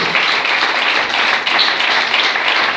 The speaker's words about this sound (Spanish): Dale el aplauso a Cristo esta noche.